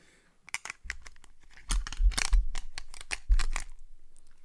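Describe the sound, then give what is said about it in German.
Someone imitates a 1980s cassette being pushed into a player: a quick series of clicks, rattles and scraping clatter building to a louder clunk, then a final snap before fading out. “Warte, ich muss wieder das Geräusch machen, wie wenn man in den 80ern eine Kassette irgendwo reinsteckt.”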